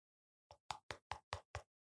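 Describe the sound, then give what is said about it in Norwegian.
Six quick, evenly spaced knocks on a door, sharp and fairly loud, rapping in a steady rhythm with silence before and after and no voices. “Vil du banke på døra, liksom komme inn”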